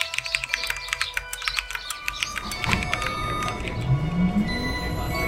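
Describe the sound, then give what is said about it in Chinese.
Sparrows chirp outside a window in the early morning, in quick, bright bursts, the high tweets tumbling over each other. Partway through, a low mechanical whine rises steadily in pitch beneath them. “清晨，窗外的麻雀叽叽喳喳。”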